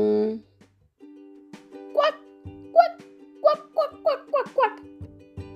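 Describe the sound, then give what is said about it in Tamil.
A person mimics a duck, letting out a quick series of about seven nasal, honking quacks that speed up toward the end, fairly loud, over a low steady hum. “இதுதான் நம்ம வாத்துன்னு சொன்ன உடனே கத்துற சத்தம் ஆனால் வாத்துலயும் ஆண் வாத்து பெண் வாத்து ரெண்டும் இருக்கு இல்லையா இதில் பெண் வாத்து மட்டும்தான் அப்படின்னு நம்ம நினச்சிட்டு இருக்க வாத்து சத்தத்தை கொடுக்கும்”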